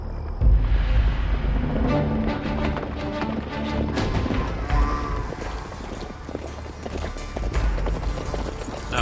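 A group of men on horses ride down a street toward a tree, their hooves clip-clopping in a steady, overlapping rhythm, loud, with a low rumbling background and no voices.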